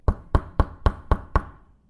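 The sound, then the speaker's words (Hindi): Six firm knocks on the wooden door of a house early in the morning, in a steady, even rhythm and fairly loud, each with a short hollow thud before fading into quiet. “वो लड़का अगले दिन सुबह सुबह ही नंदू के घर का दरवाजा खटखटा देता है”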